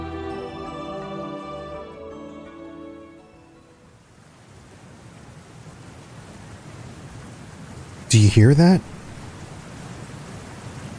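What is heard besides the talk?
rushing water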